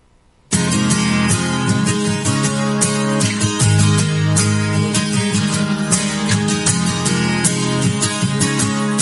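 A pop song, a preview single from a forthcoming album, kicks in after a brief moment of silence and plays steadily and loudly, with full instrumentation and a clear, regular beat throughout.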